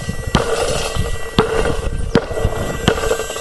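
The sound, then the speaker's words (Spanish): A ball fitted with a bell is dribbled, bouncing four times about a second apart with sharp thuds, while the bell inside keeps up a steady faint jingle between bounces. “Vamos entonces, yo me voy, voy a ir driviando la bola y me voy a ir acomodando.”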